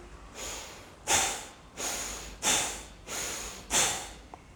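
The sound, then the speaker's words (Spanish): Three cycles of rhythmic breathing during a breathing meditation, each a deep, drawn-out inhale followed by a sharp, forceful exhale, fairly loud with no talking. “Vas a inhalar profundamente y vas a exhalar de manera muy rápida.”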